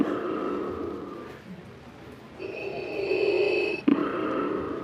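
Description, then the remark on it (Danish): A very tall, dark-clad man in a costume on Jernbanegade street in Fredensborg imitates heavy, rasping mechanical breathing, with a long drawn inhale-exhale cycle, loud, repeated with a hissing, wheezy tone and no talking. “Men det lyder som om, du har noget med åndedrættet.”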